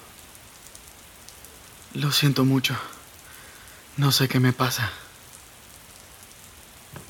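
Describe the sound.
Rain falls steadily throughout as a soft, even hiss, while a voice speaks two short phrases over it, separated by a pause.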